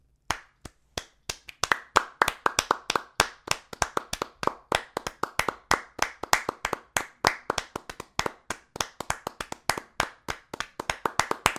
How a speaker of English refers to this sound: Like when I say a clap, I mean uh, a sustained level of clapping over a uh, an amount of time. Let's give them a taste like this.